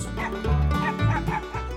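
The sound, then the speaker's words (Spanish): Several dogs bark in the distance in quick, overlapping bursts, with drawn-out yelping and howling cries mixed in. The barking is continuous for under two seconds, moderately loud, with no voices. “Los mosquitos abundaban, mientras a lo lejos se escuchaban los ladridos y aullidos de los perros.”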